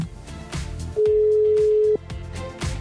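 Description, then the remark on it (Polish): A single steady ringback tone from an outgoing phone call sounds for about a second, loud and clear over rhythmic background music, with no answer and no voices. “Kurczę, no dlaczego nie odbiera, no?”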